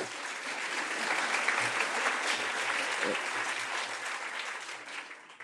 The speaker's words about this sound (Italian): Questo si chiama chiamare l'applauso effettivamente